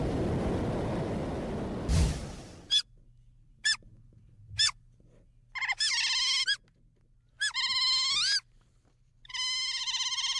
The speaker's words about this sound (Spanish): ¿Ya reconoció el sonido? Si reconoce los sonidos de este animal, entonces ya sabe quién es la estrella de nuestra historia sonora. Eso que escuchamos es una nutria